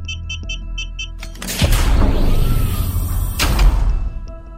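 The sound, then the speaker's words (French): A heavily guarded secured door opens and closes as a man in a dark suit passes through: a few quick electronic beeps, then a loud mechanical release and a rushing slide, ending in a heavy thud as it shuts. “Après avoir traversé un dédale de corridors, l'homme au complet sombre franchit enfin une dernière porte sécurisée, encore mieux gardée que les autres.”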